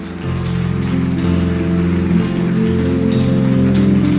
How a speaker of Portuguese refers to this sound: Dê um aplauso ao Senhor bem forte.